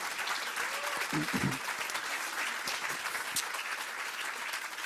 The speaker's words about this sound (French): Euh, ouais, on peut l'applaudir vraiment, vraiment.